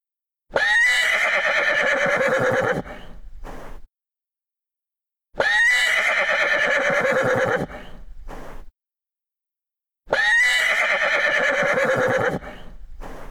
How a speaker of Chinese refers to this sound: 原来是小马哒哒哒跑过来了。听，小马在嘶鸣。